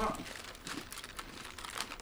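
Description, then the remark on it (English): A gingerbread Oreo cookie package crinkles and rustles steadily for about two seconds, with bursts of bright, crackly plastic noise and a few sharper crackles, no voices present. “probably says it on the package, but I am start.”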